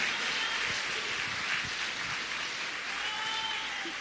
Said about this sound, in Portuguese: Vamos aplaudir o Senhor. Bem forte. Glória, glória a Deus, glória a Deus.